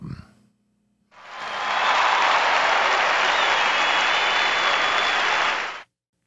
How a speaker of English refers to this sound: I think you deserve a round of applause for that.